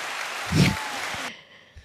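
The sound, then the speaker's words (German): A short burst of crowd applause from a sound effect, a dense wash of clapping that swells briefly and then cuts off abruptly after little more than a second, leaving a faint tail. “Und das ist doch einen kleinen Rimshot wert. Und einen Applaus.”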